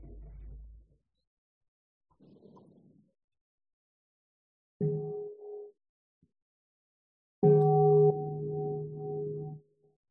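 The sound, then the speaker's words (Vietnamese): A monk strikes a meditation bell twice, first a brief lighter tap, then a fuller strike whose deep, humming tone rings out steadily for a couple of seconds, clear with no talking. “Sư sẽ có thỉnh mức tiếng chuông cho mọi người buông thư.”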